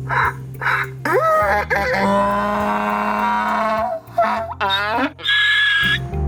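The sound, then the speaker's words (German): A donkey from the Oberaargau brays loudly, its harsh hee-haw rising and falling in several drawn-out cycles over a few seconds, with no talking. “Das letzte Wort hat heute aber der Esel aus dem Oberaargau,”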